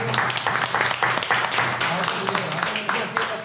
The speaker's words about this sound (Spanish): Un aplauso para mi compa.